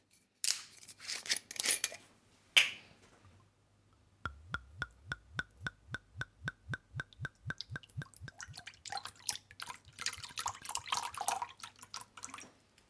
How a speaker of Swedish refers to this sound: Men jag börjar med att hälla upp lite glögg i skålen.